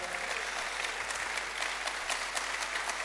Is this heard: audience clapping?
yes